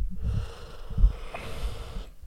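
A long, breathy yawn from a tired person, a drawn-out airy exhale with a low rumbling undertone lasting about two seconds, with no talking.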